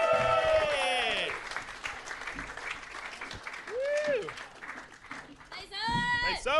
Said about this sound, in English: And keep that applause going.